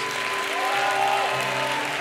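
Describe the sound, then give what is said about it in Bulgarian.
A crowd applauds with steady, dense clapping that holds an even level for about two seconds, while a faint sustained musical tone hums beneath it. “О, аз щях да ръкопляскам, ако бях на вас”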